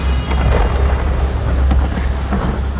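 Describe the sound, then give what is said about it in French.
A deep, continuous rumble of storm thunder rolls low and heavy throughout, with a broad roar layered over it and no pauses or voices. “Tu viens d'arriver Malgré cette tempête”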